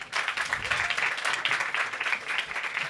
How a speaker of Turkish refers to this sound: Sokrates evet. dergisi genel yönetmeni bir alkış alalım lütfen.